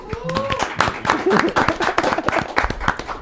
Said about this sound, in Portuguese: Palmas para isso.